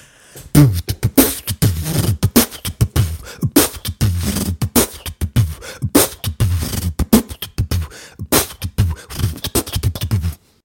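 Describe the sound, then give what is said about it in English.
Fast, steady vocal percussion made with the mouth: punchy bass thumps, sharp clicks and hissy snare-like bursts in a continuous groove, fairly loud, with no talking. “Want me to beatbox for you?”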